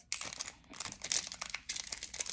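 Crisp crinkling and tearing of a foil wrapper, in a few quick bursts with brief pauses, as a second Pokémon trading card booster pack is ripped open; no talking.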